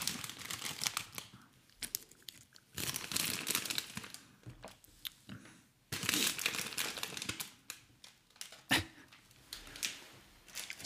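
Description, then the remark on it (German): Loud crinkling of a plastic snack bag of grilled scallop strings in repeated bursts, with rustling and handling noises between them and no voices, as people reach into the bag and eat. “Ich bin gerade am überlegen, wie das ist, dabei zuzuhören, wie wir die ganze Zeit hier rumkruspeln und irgendwelche Sachen essen.”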